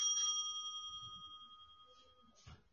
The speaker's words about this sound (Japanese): この、なんだろう、呼び鈴が、レストランの呼び鈴みたいなやつですね。